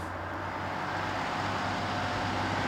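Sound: bus engine driving off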